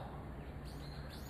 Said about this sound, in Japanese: ものすごいね緑が緑に囲まれまくってますねやっぱ緑はいいですね、えー、落ち着きますねなんかね鳥の声も聞こえたりしてね